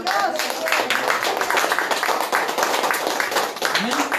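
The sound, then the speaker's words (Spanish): An audience at a church service claps steadily and densely for about four seconds for "the one who lives", a continuous patter of many hands at a fairly loud level, with voices mixed in underneath. “¿Alguien les puede dar palmas a aquel que vive?”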